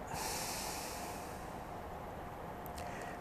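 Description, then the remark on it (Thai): A long, forceful exhalation through the nose, a steady breathy rush of air lasting several seconds, fairly loud, with no talking, during a guided Buddhist breathing meditation of breathing in, holding the breath and breathing out. “หายใจออก หายใจเข้า”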